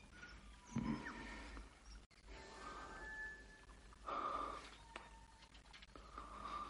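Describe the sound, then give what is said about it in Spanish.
George, naked on a bed, breathes heavily while caressing Ada: a few ragged, breathy bursts with groaning undertones, moderately loud, over a quiet background hum. “A través de la ranura, Flora ve a George jadeante acariciando a Ada.”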